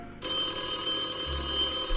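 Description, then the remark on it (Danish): A telephone rings with a steady electronic trill that starts abruptly and continues at moderate volume, with no voices over it. “Hvem ringer dog på det her ukristelige tidspunkt?”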